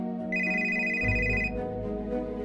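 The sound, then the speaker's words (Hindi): A mobile phone left in the kitchen rings with a bright, steady electronic ringtone lasting just over a second, clear, while low background music swells underneath and carries on after the ring stops. “उस दिन मोबाइल की घंटी घनघना उठी थी”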